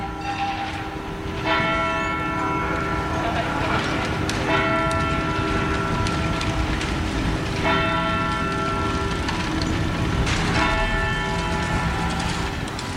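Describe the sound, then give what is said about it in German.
The bell of the Zytglogge clock tower in the old town of Bern, Switzerland, strikes four times, evenly spaced about three seconds apart, each ringing tone lingering and fading over a steady hum of outdoor city noise. “Das sind Glockenschläge von einer ganz besonderen Uhr. Der Zeitglocke, mitten in der Berner Altstadt.”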